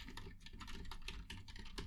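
Rapid computer keyboard typing, a dense run of quick, crisp key clicks with no pauses, steady throughout.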